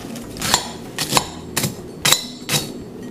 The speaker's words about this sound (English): Take your toast, Labrador toast. Labrador toast. And break this up in a bowl.